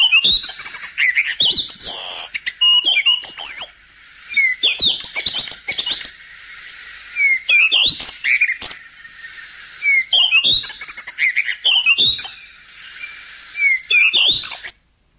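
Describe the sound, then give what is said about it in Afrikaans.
A Cape robin-chat sings clear phrases of varied whistles and warbles, repeated every few seconds with short pauses between them, with no voices or other sounds. “volgende aan die beurt die bekende Jan Frederik, miskien Janine Frederik, mens weet nie.”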